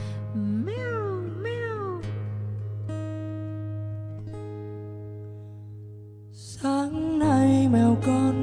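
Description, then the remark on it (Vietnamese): A cat meows twice in quick succession, then after a pause lets out a longer, wavering meow, all clear over a steady low humming drone. “bạn thấy không một con mèo mà nó còn biết cách thảnh thơi vương mình trong nắng sớm mắt ngây thơ nhìn cuộc đời và ồ à với thế giới theo cách của riêng nó”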